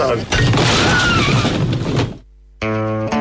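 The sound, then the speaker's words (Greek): A loud, roaring crash of the vaccination centre building in Peristeri coming down, with rumbling and shattering debris for about two seconds, then a brief silence before a short tonal sting. “Δεν υπάρχει πια γιατί όπω ακούσατε γκρεμίστηκε”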